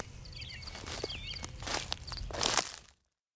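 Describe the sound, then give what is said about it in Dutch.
Footsteps of two people walking on in silence crunch along an outdoor path at an unhurried, slightly uneven pace, several steps, while small birds chirp faintly in the background over a low rumble. “En dan lopen we verder. Tijdens het lopen zijn we meestal stil.”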